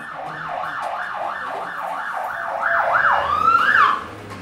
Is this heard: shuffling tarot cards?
no